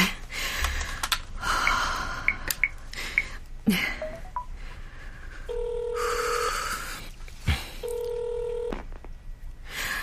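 Two long, steady electronic ringing tones sound in succession, the ringback of an outgoing phone call to a client. Earlier, faint rustling and breathy noises come before the ringing.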